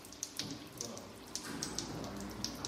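Irregular water drips from a leaking hose land on the floor with sharp little splashes over a steady low hum, a dozen or so drops spaced unevenly, fairly quiet, in a bottling plant's production room in Irisos after the filling machine stops, on a morning with over 30 degrees outside.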